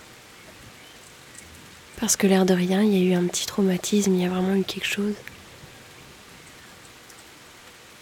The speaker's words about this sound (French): Du coup, je pense qu'après ça, ça a été un petit peu plus compliqué pour moi de d'ouvrir la fenêtre comme je le fais là maintenant avec sérénité et, et juste de regarder l'orage ou de l'écouter en fait.